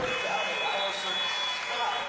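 A loud, steady electronic buzzer blares for about two seconds without a break, with arena crowd noise beneath it.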